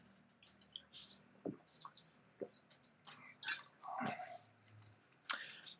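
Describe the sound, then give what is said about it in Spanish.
A person sips water: a few quiet wet gulps and swallows, with small mouth clicks and faint squishy sounds scattered between them, and no talking. “Voy a tomar un poco de agua porque me está sacando la boca.”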